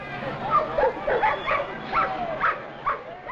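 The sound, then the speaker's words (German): Police dogs bark in a quick, uneven series of sharp yelps, about seven in a few seconds, as police set them on child demonstrators near Kelly Ingram Park, over a hissy, noisy background with a crowd murmuring. “Seine Bataillone hetzen Hunde auf sie und pferchen sie zu Tausenden in mobile Gefängniszellen.”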